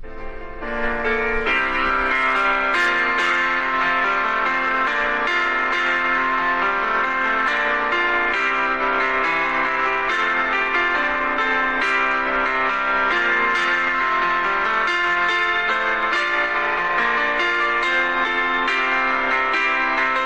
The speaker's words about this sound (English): we're going to start with our opening song